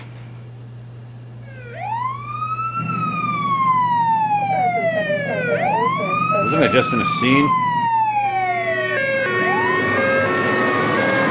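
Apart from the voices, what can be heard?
emergency vehicle sirens wailing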